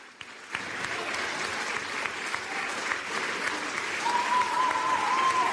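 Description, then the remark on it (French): Sustained applause from a large crowd for the outgoing minister at a Ministry of Culture handover ceremony, a dense steady clatter of many hands that swells slightly toward the end, with a faint whistle-like tone briefly rising above it. “Elle est très applaudie, évidemment.”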